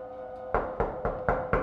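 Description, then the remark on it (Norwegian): Five firm knocks on a house's front door in a quick, even rhythm, on a day of heavy snowfall, with a faint steady hum underneath and no one speaking. “Men så banker det på døren.”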